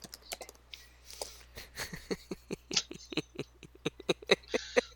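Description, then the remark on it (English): Rapid, irregular clicking of keys on a computer keyboard, fairly crisp, with short bursts and brief pauses between keystrokes and no voices. “I'm just not responding because I'm typing out things.”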